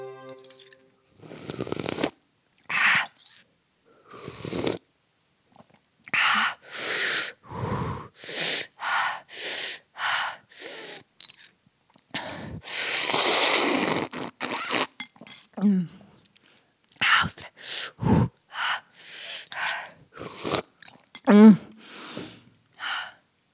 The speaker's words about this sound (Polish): Koniec zagadki dźwiękowej. Odpowiedź: zupka chińska.